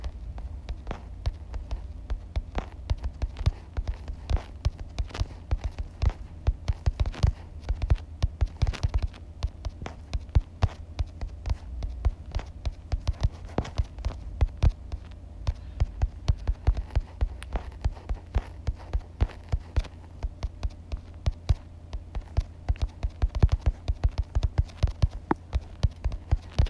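Fingertips tap rapidly and steadily on a phone screen while playing a difficult song in a rhythm game, in quick, dense bursts of soft clicks over a low background hum, with no one speaking.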